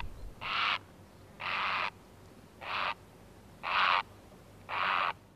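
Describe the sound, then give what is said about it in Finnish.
A grey heron in flight gives five harsh, rasping croaks at a steady pace, each call short and coarse, standing out clearly over a quiet background with no voices. “Usein paikkaa vaihtavan tai kauemmas lentävän haikaran huomaa ränkyttävästä äänestä.”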